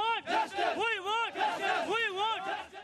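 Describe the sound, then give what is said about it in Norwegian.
A protest crowd chants at a demonstration demanding concrete action over a brutal gang rape aboard a bus, many voices rising and falling together in a loud, repeated rhythmic shout that swells in waves over about three seconds. “Og imens myndighetene vurderer tiltak, og de to ulike domstolene skal ta fatt på rettssaken mot de som er tiltalt for den brutale gjengvoldtekten om bord på en buss en søndag i desember, fortsetter demonstrasjonene med krav om konkret handling.”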